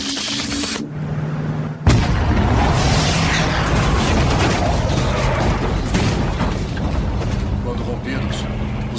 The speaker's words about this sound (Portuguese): É, quase uma explosão nuclear. E a explosão é uma, quase uma bomba atômica, cara.